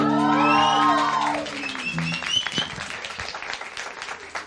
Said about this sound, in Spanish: Aparte, merecen un aplauso tanto en redes sociales como acá, porque ayer recibieron un disco de doble platino por más de 120 mil copias vendidas.